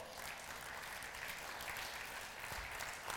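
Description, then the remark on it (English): A church audience, taking their seats, applauds the Lord Jesus Christ together: a dense, steady wash of many hands clapping at once, sustained and even throughout with no voices standing out. “let's take a seat and applaud the Lord Jesus Christ.”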